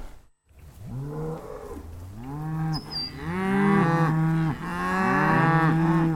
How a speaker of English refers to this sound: Yeah, those Swiss cows can only mean one thing. It's time once again for the Blue Zeppelin on Radio Bern RaBe.